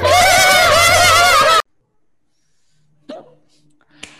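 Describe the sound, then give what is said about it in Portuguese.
A loud, wavering whinny-like cry fills the opening, then after a short silence come two sharp, brief hiccups about a second apart from a person who has the hiccups, fairly quiet. “Segunda-feira de feriado, aniversário de São Paulo, estamos gravando aqui mais um baião, tô com soluço, sobre educação, que é o tema que a gente mais fala por aqui.”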